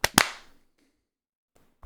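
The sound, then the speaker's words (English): Two sharp, loud hand claps for audio sync in quick succession, each a bright snap with a short ringing decay, followed by near silence before another sharp sound begins at the very end. “and then clap sync in okay. three, two, one.”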